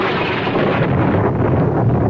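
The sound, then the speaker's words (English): A loud, rolling crash of thunder on a stormy night fills the moment, a dense, sustained rumble that roars steadily for a couple of seconds with no voices over it. “Oh, it's quite a storm.”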